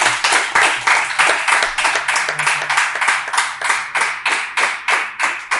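Loud applause built from sharp, bright claps landing in a steady, even rhythm, about three or four per second, continuing throughout with no voices over it.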